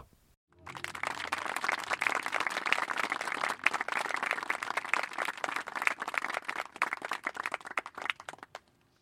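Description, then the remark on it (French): A TV studio audience bursts into steady applause for Rick Barber, a hair salon CEO, dense overlapping claps sustained for several seconds at a fairly even level before tapering off quickly at the end. “Veuillez applaudir le PDG des salons, Rick Barber.”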